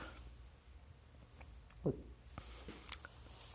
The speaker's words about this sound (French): Donc allons-y avec la première gorgée de ce fabuleux café.